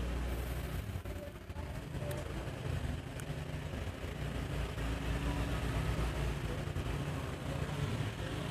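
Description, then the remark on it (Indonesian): A motorcycle engine rumbles steadily for the whole stretch, a low, constant drone with no clear rise or fade of a pass-by. “nah kayak gini kan dek iki sepeda motor iki”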